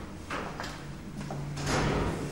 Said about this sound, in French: Et puis, j'ouvre une première porte pour trouver la serrure, je sais pas comment je fais, c'est assez facile en fait. Je, n'y pense pas. Je sais pas, je mets ma clé dans la serrure et ça vient tout seul.